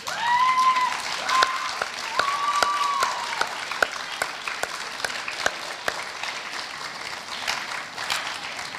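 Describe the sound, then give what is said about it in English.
Sustained applause from graduates standing to applaud their supporters, a dense wash of many hands clapping at a steady level for the whole stretch, with a few brief high whistle-like tones near the start and no talking. “What I do want you to do, though, is I'd like you to stand up and I'd like you to applaud those people in this room that are supporting you today.”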